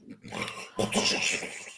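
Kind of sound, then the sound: vocal imitation, voice imitating snoring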